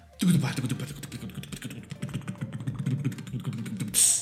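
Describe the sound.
A voice imitates a drum roll with a rapid, low, buzzing rattle of the lips and tongue, held steadily for about four seconds before stopping with a short breathy hiss.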